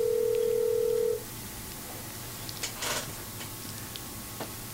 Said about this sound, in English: I hear a phone ringing. I think I will just lift that up and then set it down again and disconnect okay. the call.